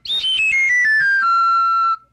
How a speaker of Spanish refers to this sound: La flauta del dios Pan suena así. La flauta de pan se toca.